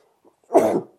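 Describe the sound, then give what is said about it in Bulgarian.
A single loud sneeze bursts out after a faint intake of breath, a short noisy blast lasting about a third of a second, with no talking around it. “На здраве.”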